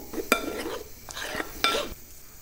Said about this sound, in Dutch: botertjes gesmolten begint een heel klein beetje te bruisen.